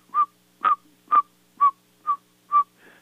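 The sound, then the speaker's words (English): A person whistles an imitation of a saw-whet owl's call: six short, evenly spaced toots at a steady rhythm, clear, with no talking. “the saw-whet owl doesn't hoot; it toots. So it kind of sounds like doot doot doot doot doot doot”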